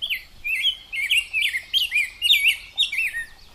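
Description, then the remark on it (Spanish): A short-crested coquette hummingbird chirps in a rapid, unbroken string of thin, high, squeaky notes, fairly clear against a quiet background with no voices. “Le dicen la coqueta de Atoyac y tiene bien ganado su nombre por ser un ser muy atractivo.”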